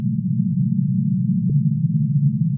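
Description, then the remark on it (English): A steady, low droning hum recorded on top of a melting ice shelf, one of the audio clips scientists use to track changes in glaciers, continuous and fairly loud throughout, with a single brief click or crack partway through. “We're going under a glacier, on top of a melting shelf of ice,”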